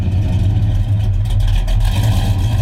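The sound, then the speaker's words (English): A big-block Chevy V8 engine rumbles loudly with a deep, lopey idle, its throttle blipping briefly near the middle before settling back into a steady growl. No one speaks. “I'm gonna go big block Chevy. Big block Chevy. Okay. Like a uh, 454 or something like that.”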